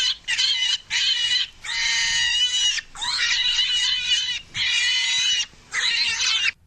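A pig squeals loudly and shrilly in a series of long, piercing bursts separated by brief pauses, harsh, with no talking.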